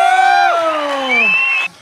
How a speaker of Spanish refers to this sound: Un aplauso por favor.